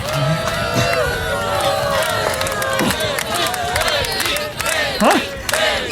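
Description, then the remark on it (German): A large concert crowd roars and cheers continuously as a singer takes the stage, many voices shouting and whooping together at steady loudness, with a brief louder swell of yells near the end. “Da, … betritt die Bühne.”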